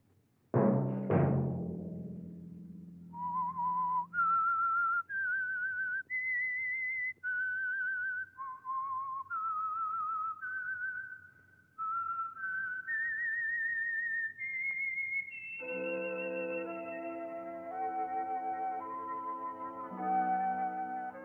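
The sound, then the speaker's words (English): A lone whistled melody of sustained, sliding notes rises and falls, with an orchestral chord swelling underneath near the end. Clear and fairly loud, with no talking. It is the theme of The Whistler, a Signal Oil Company radio program. “Let that whistle be your signal for the Signal Oil program, The Whistler, each Sunday night at this same time, brought to you by the Signal Oil Company, marketers of Signal gasoline and motor oil and fine quality automotive accessories.”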